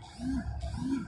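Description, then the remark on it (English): A phone notification: two short, low humming buzzes, each swelling and fading, about half a second apart, over a steady background hiss with no one talking. “Oh, sorry, that was my phone.”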